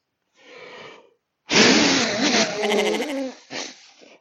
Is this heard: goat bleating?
yes